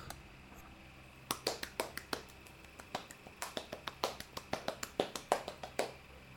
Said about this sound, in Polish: I teraz przestawię przełącznik ten lewy na środek. Przepraszam, nie lewy, tylko ten prawy na środek.